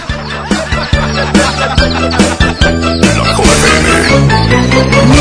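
Loud, upbeat children's song with a bouncy beat, with chicken clucking sounds woven into the rhythm throughout, prominent in the mix.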